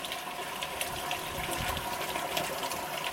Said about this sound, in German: Rund 1000 Liter Abwasser fließen jede Sekunde durch das Klärwerk. Es kommt aus Duschen und Toiletten, Spül- und Waschmaschinen, Industrieanlagen. Darin Schmutz und Mikroplastik, Salz, Fette, Fäkalien, Bakterien und Viren.